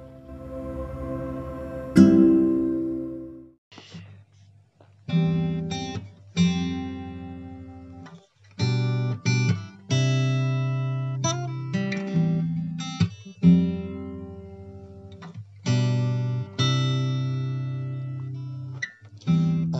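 A song plays: a bright struck opening followed by sustained, harmonically rich notes that shift in pitch every second or so, steady and fairly loud throughout, with no talking over it.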